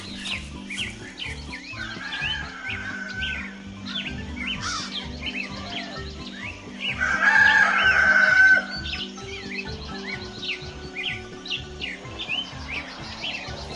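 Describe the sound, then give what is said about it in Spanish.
A rooster crows once, loud and drawn out, midway through, over a steady backdrop of chirping birds and clucking fowl with a low, rhythmic thumping underneath. “la madrugada, del rancho corrió, bajo su último sueño, la raya roja del canto del gallo.”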